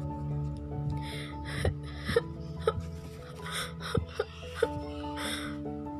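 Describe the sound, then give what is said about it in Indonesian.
A voice sobs and whimpers from a kitchen, with sharp, hiccupping gasps between cries, fairly quiet, over a steady low tonal hum in the background. “Dalam tidurnya, dia mendengar suara tangisan yang berasal dari dapur.”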